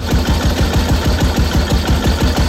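A vintage Matchless motorcycle engine starts at once and runs loud, its single cylinder thumping in a rapid, even rhythm with no voices over it.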